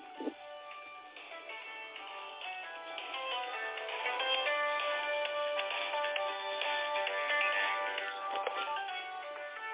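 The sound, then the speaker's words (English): A phone rings with a busy, melodic electronic ringtone that plays steadily for the whole stretch, thin and tinny in tone, moderately loud, with no one speaking over it. “got to cut off a phone so I don't have no interruption.”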